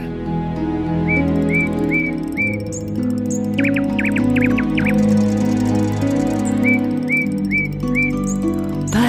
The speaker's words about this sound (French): L'oiseau mécanique ne faisait que dérouler sa partition comme une boîte à musique, tandis que le rossignol improvisait les notes et chantait selon son cœur. Que l'oiseau mécanique chante seul.